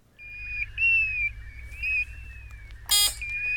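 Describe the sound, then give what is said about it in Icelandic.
A European golden plover gives a series of clear, plaintive whistled notes that rise and fall, heard alone over a low steady rumble, with one sharp click near the end. “Eh, Lóa. Það var lóan.”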